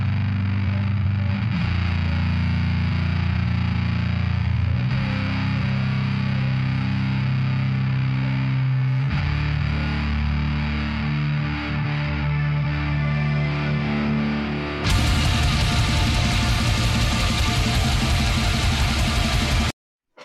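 Loud, heavily distorted band music with dense, saturated guitars and synth layers, a voice singing faintly deep in the mix; the wall of noise grows brighter and harsher near the end.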